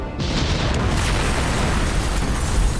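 video game explosion

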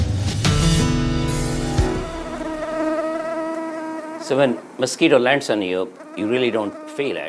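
mosquito buzzing

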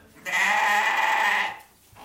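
billy goat bleating

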